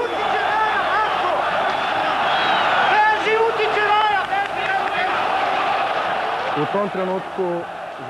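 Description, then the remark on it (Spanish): Loud, chaotic shouting from many voices at once, with cries and yells overlapping continuously and never easing, as a group of police beat Dinamo fans near the centre circle of a football stadium, recorded by a Yugoslav TV news camera. “Oímos los gritos a través de una cámara ENG de la tele yugoslava.”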